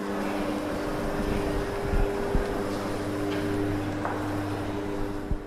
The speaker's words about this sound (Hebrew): הרעש שאתם שומעים ברקע הוא הרעש של יצירת האומנות הזאת שהיא פועלת.